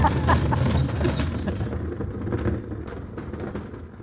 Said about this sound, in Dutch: Ja, ja, ja, we wachten even. Pauze, omdat, eh, voor het onweer.